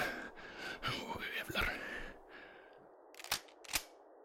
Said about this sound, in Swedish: Ja, jag laddar bössan.